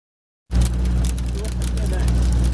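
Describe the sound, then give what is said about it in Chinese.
Ice pellets patter rapidly and irregularly on the sheet-metal roof of a car at 3,275 metres elevation, falling around 8 a.m., a dense stream of sharp ticks over a steady low rumble, starting abruptly after a brief silence and staying fairly loud throughout. “一粒一粒的冰角拍伫咧汽车的钣金顶悬，发出声音。”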